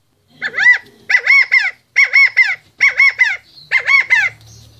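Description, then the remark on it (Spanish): Domestic hens and roosters being raised by the speaker call loudly, five harsh, wavering squawks in a steady series with brief pauses between them, and no one speaking. “las gallinas que tengo y los gallos que estamos criando con mi tata.”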